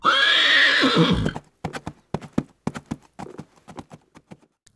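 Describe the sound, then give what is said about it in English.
A wild Australian brumby horse gives a loud whinny lasting just over a second, then hooves clop in a quick, uneven rhythm of sharp knocks. No one is talking. “It's time for Australia to end this deadly love affair and consign the Brumby to the one place where they can do no more harm while continuing to be a part of our story.”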